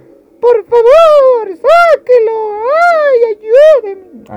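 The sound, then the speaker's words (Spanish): A voice imitates a baby crying, producing five or six drawn-out, rising and falling wails in close succession, loud, with short gasping pauses between them and no other talk. “Hernán escuchó el llanto de un bebé”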